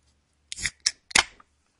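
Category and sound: food or drink, beer can being opened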